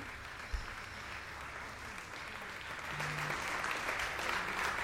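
Steady audience applause, a dense wash of many hands clapping that holds at a moderate level and swells slightly louder midway through, with no voices standing out.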